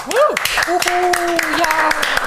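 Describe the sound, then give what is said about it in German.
Scattered hand claps rattle along for a couple of seconds, sharp, while a voice lets out a rising whoop and then a long sustained cheer over them, celebrating a 50th anniversary edition. “das ist eine ganz besondere Folge, denn wir feiern Jubiläum mit der 50. Ausgabe. Applaus, Applaus.”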